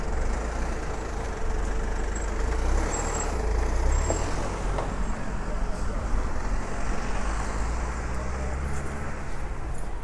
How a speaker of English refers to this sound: So I'm just on like Beach Road, Chorlton. A lovely area of Manchester. But hella full of cars right now.